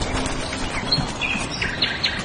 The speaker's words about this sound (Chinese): 从九九年五月。种竹工人刚从竹林出来开始，就有鸟儿进入竹林。